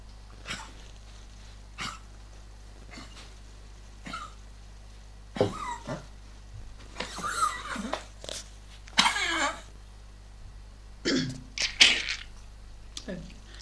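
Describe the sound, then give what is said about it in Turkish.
A dog with left heart failure coughs repeatedly in harsh, hacking bursts, some single and some in quick clusters, fairly loud, with quiet pauses between fits. “Öksürük sol kalp yetmezliğinin en belirgin bulgusu ve efor kaybı.”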